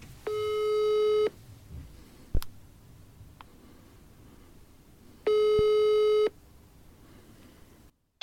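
Two steady buzzing ringback tones from an outgoing phone call, each about a second long and spaced several seconds apart, with a faint click or two in the quiet gap and no talking.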